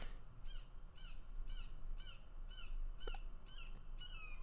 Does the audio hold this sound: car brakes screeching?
no